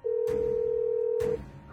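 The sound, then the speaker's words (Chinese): A steady, mid-pitched telephone tone as a woman phones her husband. It holds unbroken for over a second and then cuts off. Two brief dull thumps land during it, one early and one near the end. “我颤抖着从地上爬了起来，想去给老公打电话，让他快点回来。”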